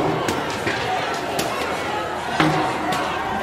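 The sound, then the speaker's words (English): Protesters throw objects, including rocks, at the windows and doors of the Atlanta Police Foundation headquarters on Peachtree Street in Atlanta: several sharp, scattered bangs and thuds ring out over a loud, continuous crowd clamour with people shouting and talking. “They've stopped in front of Atlanta Police Foundation headquarters people are throwing throwing stuff at the uh, windows and doors.”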